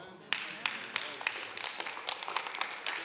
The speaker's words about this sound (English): Now they're clapping.